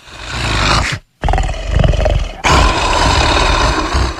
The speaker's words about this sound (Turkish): Bir an bir şey söyleyeyim mi alttan? şu hırlama efektini e, şey e, ben bile unutmuşum.